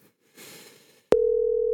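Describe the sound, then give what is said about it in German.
A soft rustling hiss gives way to a loud, steady telephone line tone while a call connects, starting abruptly and holding unbroken to the end, clear with no voices. “Ich hoffe, ich komme jetzt gleich nochmal durch.”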